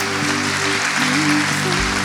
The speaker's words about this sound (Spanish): Denle un aplauso a Dios que es bueno, es fiel